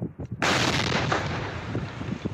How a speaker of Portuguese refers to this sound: Explosões controladas feitas pela polícia em um aterro sanitário de Araçatuba.